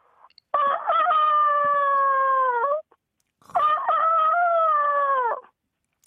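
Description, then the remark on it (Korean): A man does a vocal impression of a rooster crowing, two long, loud calls with a sharp rising start and a sustained, slightly falling wail, separated by a short pause. “자, 닭 울음소리 갑니다.”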